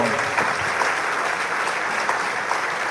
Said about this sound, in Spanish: Gracias, Padre. Gracias, Padre. Pues un aplauso.